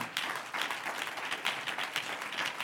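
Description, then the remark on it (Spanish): An audience breaks into sustained applause for the Lord during a sermon, many hands clapping together in a dense, steady wash of sharp claps that stays fairly even in loudness throughout, with no voices standing out. “Dele un aplauso al Señor si usted muerto.”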